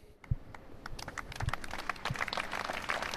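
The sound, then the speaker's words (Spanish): Applause from a crowd gathered in front of the town hall in Sarautz at an emotional memorial gathering in remembrance of Iván Iyarramendi, following five minutes of silence: a dense patter of many hands clapping that builds slightly over a few seconds, with a few louder individual claps standing out and no voices. “seguido de aplausos en esa emotiva concentración en recuerdo a Iván Iyarramendi”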